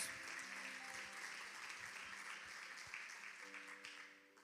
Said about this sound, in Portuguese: Aplauda bem forte Jesus.